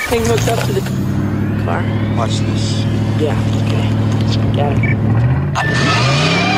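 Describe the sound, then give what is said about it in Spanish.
An old, battered DeLorean's engine rumbles loudly and steadily as the car drives up, its deep drone holding for several seconds before the pitch shifts and revs near the end. “Mira, Max, ese carro campaneando.”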